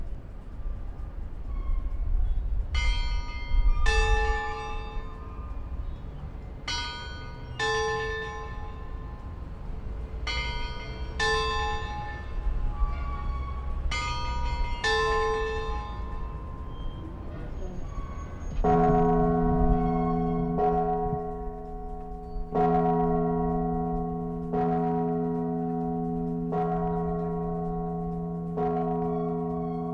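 Church bells of the Basílica Colegiata de Nuestra Señora de Guanajuato, in Guanajuato, ring the 2 pm hour, heard from the basilica's rooftop: first a quicker pattern of lighter chimes, then a deep bell tolling slowly several times, each stroke resonating over a low outdoor rumble.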